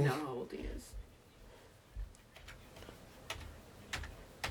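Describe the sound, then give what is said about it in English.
Several light plastic clicks of calculator buttons being pressed to work out a sum tap out at an irregular pace, following a brief voice at the very start. “typing it in. We're getting an answer.”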